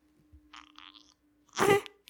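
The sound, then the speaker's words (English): A newborn baby girl makes small waking sounds: a couple of faint, airy squeaks, a pause, then a louder breathy grunt and a tiny click, with no talking. “Oh, there she is waking up a little bit. Let's see if we can capture her. Some sounds from her.”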